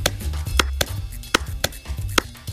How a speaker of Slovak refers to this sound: Áno, samozrejme, že šlo o zvuk tlesknutia z ukážky z poviedky Haruki Murakamiho Birthday Girl.